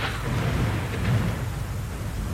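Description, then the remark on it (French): A steady thunderstorm roar with heavy low rumbling thunder and gusting wind over a broad wash of pouring rain hiss, loud and continuous throughout with no voices. “Le vent souffla en rafale, le tonnerre gronda le plus fort qu'il put, la pluie tomba à verse.”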